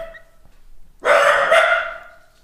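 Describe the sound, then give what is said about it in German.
A dachshund lets out a loud, drawn-out bark at a noise heard in the stairwell, a single sustained yelp lasting over a second before trailing off, with no one talking. “Und dann muss sich mein Dackel natürlich melden”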